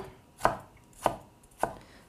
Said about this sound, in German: Ich mache es jetzt so ganz feinwürfelig. Ich schneide dazu einmal parallel zum Brett und nochmal parallel zum Brett die Zwiebel ein. Und dann von oben der Länge nach, so fein ihr das könnt, quasi die Streifen.